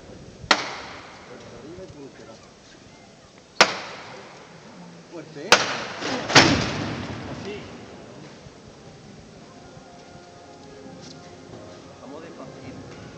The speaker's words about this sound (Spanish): Por ello ahora mismo está detenido el paso de palio, seguramente para poder eh, bueno, maniobrar, eh, maquinar, mejor dicho, esas maniobras que, que se tendrán que producir. Escuchamos nuevamente el llamador